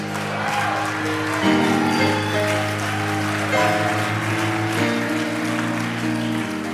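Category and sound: crowd, clapping applause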